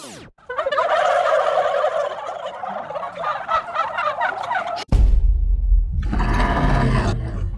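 A turkey gobbles loudly in a rapid, warbling burst lasting several seconds, followed by a low rumbling thud and a brief noisy rush.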